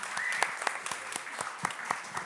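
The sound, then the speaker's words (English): An audience claps in a steady round of applause for the panelists at the end of a panel talk, many hands producing dense, crackling bursts at an even level, with a faint whistle or cheer rising briefly early on. “Um, I want everyone to give a big round of applause for all these amazing panelists for coming and opening up, please.”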